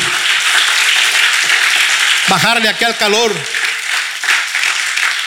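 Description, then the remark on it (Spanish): An audience applauds steadily for several seconds, a dense, even wash of clapping that holds loud throughout, while a man's voice briefly speaks over it midway. “Alguien tiene un aplauso, Señor”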